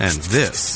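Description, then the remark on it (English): Steady scratching of fingernails on itchy, irritated skin in summer, a dry rasping rub that continues throughout, with someone speaking a couple of words over the start. “is the sound of summer skin being scratched because of the itching and irritation of what the season can bring.”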